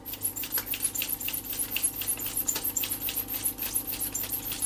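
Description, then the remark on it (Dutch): A rapid run of small clicking, ratcheting scrapes as Fuji film is wound onto a plastic developing spiral in complete darkness, repeating steadily with no talking. “Het geluid wat je hoort is dus het eh, inspoelen van het filmpje.”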